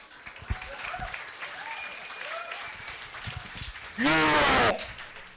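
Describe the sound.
A crowd claps steadily amid a murmur of voices, then the applause swells into a brief, loud burst with cheering near the end before cutting off.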